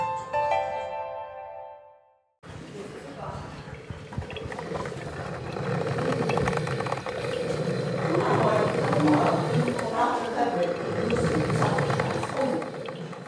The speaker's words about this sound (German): In der Küche blubbert die Kaffeemaschine, das Aroma lockt nach und nach zehn Frauen aus ihren Zimmern an den großen Holztisch mitten in der WG im Hofer Bahnhofsviertel.